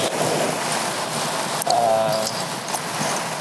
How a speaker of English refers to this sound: you could see the rain falling really so heavily and being blown by the wind. You know, and then I get on the bridge, and the next thing I know, I'm getting hit with hail. And that's where I'm at right now.